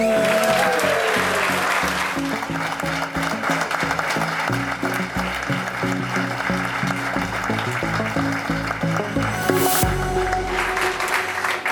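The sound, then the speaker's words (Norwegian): A live studio audience at the Dagsnytt 18 programme in Bergen, Norway, claps loudly and continuously for about eleven seconds, a dense, steady wash of applause that swells briefly near the end. “Og publikum!”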